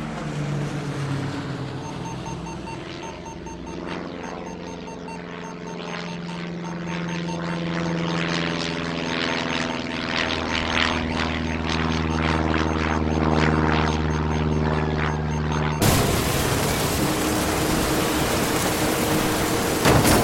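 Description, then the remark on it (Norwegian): A steady, droning engine of an off-course passenger aircraft 3.7 km from the airport hums with a low, throbbing tone, growing gradually louder as it nears, then gives way to a harsh, wide roar in the final seconds. No one speaks. “Flyet er nå bare 3,7 km fra flyplassen.”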